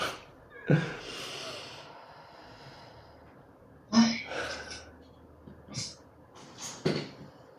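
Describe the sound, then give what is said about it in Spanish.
Ragged breathing with sharp sniffling gasps and sobbing catches at irregular intervals, heavy and strained, as a woman cries hard. “Es que no me aguanto. Rompo, muchísimo a llorar.”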